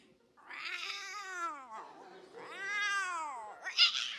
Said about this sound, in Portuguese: Gato. Gato, Mas... Mia, gato, gatão, gatinhas e gatões,